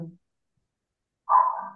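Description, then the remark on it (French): A single short bark from a dog outside, behind an open window, rings out after a near-silent pause, a brief mid-pitched yelp with no voices around it. “De quoi Il n'y a, pas il y a pas un chien qui aboie derrière ah, pardon.”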